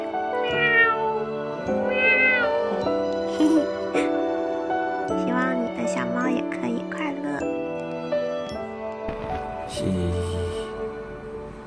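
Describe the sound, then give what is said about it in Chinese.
A person imitates a cat, giving a string of high, wavering meows one after another over steady background music that continues throughout. “没有什么才艺表演，给你学猫叫好吗？”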